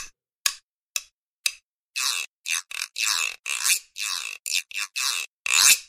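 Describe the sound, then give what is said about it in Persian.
A grooved wooden güiro is struck with a few sharp, evenly spaced taps, then scraped with a stick along its grooves in a quick run of ratchety, raspy strokes of varying length, fairly loud with no talking. “ساز گویرو هست ببینید این شبیه”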